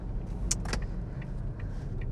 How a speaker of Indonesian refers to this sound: ini di mobil lagi sudah lama kayaknya nggak bikin di mobil